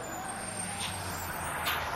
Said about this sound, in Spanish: El autobús llega a Oromana, el paraje tranquilo y rodeado de naturaleza en Alcalá de Guadaira, que ha sido el lugar de concentración de la selección española durante toda la semana.